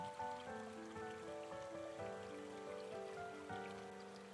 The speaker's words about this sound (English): As you look at the stream, you notice the water rushing down. No stopping, constantly moving.